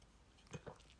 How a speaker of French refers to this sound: je prends une petite gorgée de café,